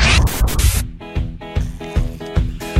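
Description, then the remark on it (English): A cork scrapes and squeaks out of a bottle of Dewar's 12 blended Scotch whiskey in a few quick, scratchy bursts, ending in a sharp pop. A steady, rhythmic tonal thumping follows at moderate loudness. “Uh, Instead of a beer, it's a uh, it's a cork.”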